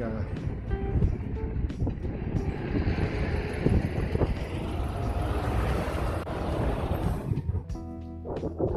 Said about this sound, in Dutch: wacht even op die auto, denk ik.